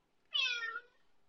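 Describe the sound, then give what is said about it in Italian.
A single short, high-pitched meow from a kitten named Kitty, clear, rising and then trailing off in about half a second, with quiet background and no talking. “ti fa vedere una gattina”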